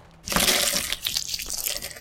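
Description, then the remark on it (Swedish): A loud crunch of a statuette crushing a bone fragment, quickly turning into a wet, squishing slide as it goes into the brain, rasping on for under two seconds. No one speaks. “Ljudet av statyetten som krossar benfragmentet och glider in i hjärnan hörs.”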